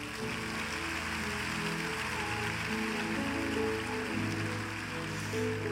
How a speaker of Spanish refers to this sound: ¿Cuántos tienen menos de un año en esta congregación? Levanta tu mano. Menos de un año. Wow, gloria a Dios. Denle un aplauso a esta gente linda.